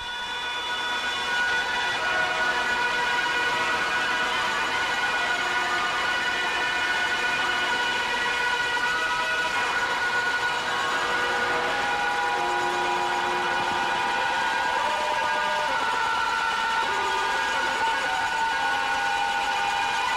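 A loud, unbroken wall of noise music: layered electronic feedback tones drone and waver together, shrill and siren-like, shifting slowly in pitch with no voices or beat.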